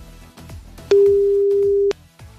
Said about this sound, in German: Dann werde ich das jetzt tun und drücke auf meinem digitalen Telefonpad auf Call und der Call geht raus. Versuch Nummer 1.